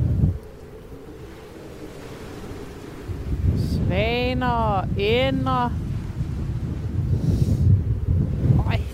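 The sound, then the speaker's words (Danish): Strong wind blowing over open water roars steadily and buffets the microphone with low, rumbling gusts, growing louder partway through while a person speaks briefly. “Åh, oh, det blæser!”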